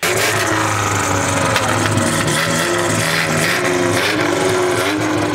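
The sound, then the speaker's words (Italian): A Ferrari 308 GTB sports car engine roars loudly and continuously, its throaty growl rising and falling slightly as it revs, with no voices present. “Il motore, quindi il rombo che noi sentiamo durante la serie televisiva è stato doppiato, quindi eh, pensate anche le automobili hanno dei doppiatori.”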